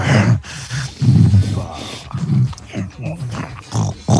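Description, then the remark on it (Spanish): A man growls like a Rottweiler, making several rough, low guttural bursts in quick succession, fairly loud, with brief breathy pauses between them. “Gruñó.”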